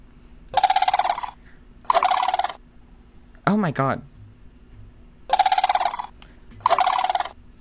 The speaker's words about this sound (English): It's a goddamn crane. It's it's a bird. It is a monster. I have seen them in real life. I have been chased by them in real life. sandhill crane making crazy noises in Florida.